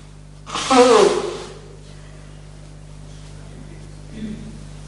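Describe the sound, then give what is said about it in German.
A speaker blows their nose once during a recording: a single loud, short honking, breathy burst lasting about a second, then quiet with a faint rustle near the end. “Ich mir leider echt mal die Nase putzen, tut mir leid.”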